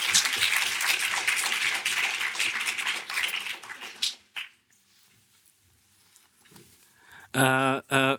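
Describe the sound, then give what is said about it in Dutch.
A crowd applauds steadily for about four seconds, dense, then the clapping stops abruptly and a quiet pause follows before a voice begins speaking. “nog een applaus graag”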